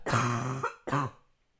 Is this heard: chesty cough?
yes